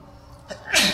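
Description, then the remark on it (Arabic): A single sharp sneeze, with a quick inhaled catch before a loud, breathy burst, standing alone with no talking over it. “يرحمك الله”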